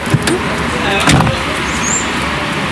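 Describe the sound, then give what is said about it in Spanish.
A man climbs back into a taxi with an idling engine at a gas station: a rustle and a soft thump of the door, over a steady low engine hum and faint muffled voices. “Don Manuel se baja del taxi para platicar con él. Luego de unos segundos, vuelve al coche.”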